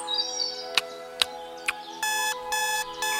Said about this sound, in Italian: Dov'è la sveglia? Perché non si spegne?